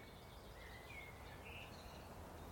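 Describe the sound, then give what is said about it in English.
Faint whitethroat song: a few brief, high scratchy phrases rising out of a steady outdoor hiss, with no voices present. “Just a little scratchy song of the white throat.”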